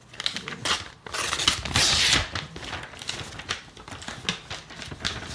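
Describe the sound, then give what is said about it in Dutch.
A paper envelope is torn and ripped open, a run of crackling, scratchy tears with a longer loud rip in the middle, followed by rustling and smaller tugs. “Maak je die envelop verder kapot, dat mag wel.”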